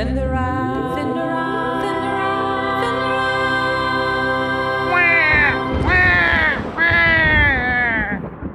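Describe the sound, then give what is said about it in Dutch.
A person imitates a crying baby: a long, steady, loud wail, then three shorter, wavering cries that rise and fall in pitch, with no talking. “ik denk, ik doe even een baby na.”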